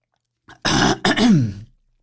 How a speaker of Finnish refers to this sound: Ai että, ei ollut muuten yhtään terästetty, vaikka siihen tulikin tuollainen autenttinen yskäsy perään